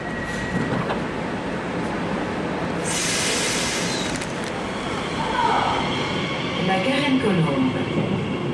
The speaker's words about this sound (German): Ich dränge mich durch überfüllte Pariser Bahnhöfe und steige schließlich in eine Regionalbahn.